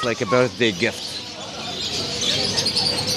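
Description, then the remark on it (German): A few quick bird coos sound at the start, followed by a steady wash of busy noise at an animal market selling various birds, cats and dogs, with murmuring voices in the background. “wir haben diese Vögel gern bei uns zu Hause und deswegen haben wir hier verschiedene Arten von Vögeln, auch verschiedene Katzen auf dem Markt, auch Hunde, viele verschiedene Tiere.”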